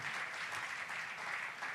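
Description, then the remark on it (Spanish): An audience applauds together in praise of the Lord, a dense, steady wash of many hands clapping at an even loudness with no voices standing out. “Dale un aplauso al Señor porque Él es fiel y su fiel amor permanece siempre, siempre Señor.”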